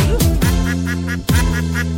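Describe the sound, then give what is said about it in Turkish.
A duck quacks in quick repeated bursts over upbeat music with sustained tones, the quacks coming in short rhythmic groups that stand out against the steady backing. “Ali Baba'nın bir çiftliği var Çiftliğinde ördekleri var”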